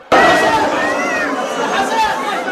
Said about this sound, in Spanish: Este niño en medio de gritos de dolor llamó a sus padres.